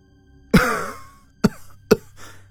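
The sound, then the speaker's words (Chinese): A harsh, hacking cough starts the sequence, followed by two more sharp, forceful coughs and a faint fourth one, uneven in rhythm and loud with no talking, as a man who has just woken to his morning alarm coughs violently before he can sit up in bed. “他还没能从床上坐起来，就发出一串剧烈的咳嗽声，哎，胸口好痛啊！”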